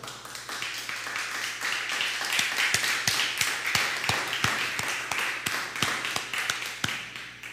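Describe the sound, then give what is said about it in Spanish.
An audience at a Bible teaching applauds steadily for the Eternal (God), a dense wash of many hands clapping with sharper individual claps popping out at a fairly regular rhythm, holding an even level throughout with no clear voices. “Un aplauso, por favor, al Eterno.”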